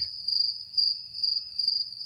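Crickets chirp in a steady, continuous high trill that never lets up, fairly clear, over a faint low background rumble with no one talking.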